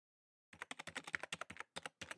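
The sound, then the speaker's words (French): Rapid clattering keystrokes on an old computer keyboard in an archive reading room, typing the name Fratani to search for references, about fifteen sharp clicks in an uneven burst with a brief pause near the end, fairly loud, no voices. “On tape Fratani sur un vieil ordinateur qui nous sort deux références.”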